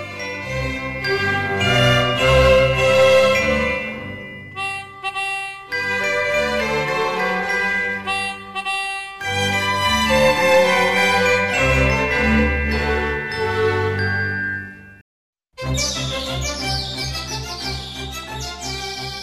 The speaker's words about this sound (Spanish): La danza a la que me refiero es el minueto. En este minueto solamente escucharemos a los silbatos y a la trompeta. También la trompeta va apoyada del tambor.